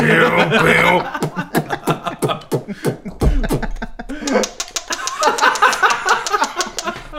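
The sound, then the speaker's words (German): A voice beatboxes for several seconds, rapid percussive clicks, snaps and breathy bursts in a busy rhythm, with hummed and voiced tones in between, fairly loud. “mach mal jetzt hier einen auf Beatbox kurz, ankündigen.”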